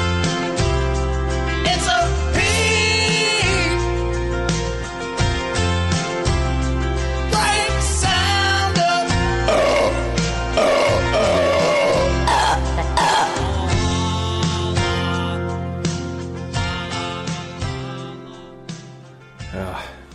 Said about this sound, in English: Very, very, very loud burps.